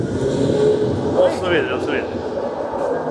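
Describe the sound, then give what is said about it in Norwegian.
Steady city street traffic ambience of Brugata, played as a sound installation, a dense rumble of passing cars filling the background, with a voice speaking briefly over the noise. “Det er lyden av Brugata.”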